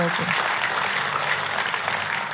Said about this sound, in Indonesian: Oh, kalau tepuk tangan, tepuk tangan yang meriah itu.